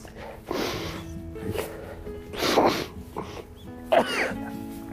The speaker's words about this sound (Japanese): いやすげえくしゃみごめんなさい。一気に冷えたんです。